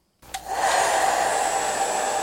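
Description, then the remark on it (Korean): A hair dryer switches on with a click and settles into a steady, loud whirring roar with a high whine, running continuously with no one speaking. “네, 이 소리의 정체는 바로 드라이기였고요.”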